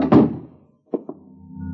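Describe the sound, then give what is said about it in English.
The door marked Office of the Manager shuts with a loud, heavy thud that rings out briefly, followed about a second later by two softer, quick knocks or clicks. No one speaks. “Close the door.”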